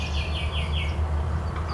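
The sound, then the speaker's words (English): A swamp sparrow sings a slow, even trill of repeated sweet notes at the edge of a lake, set over a steady low rumble of wind or traffic. “see if this thing can differentiate. Swamp sparrow that's here from chipping sparrow.”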